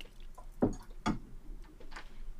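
A small amount of drink is poured into another person's glass, coming out in a few quick glugs and splashes over a quiet background, with no talking.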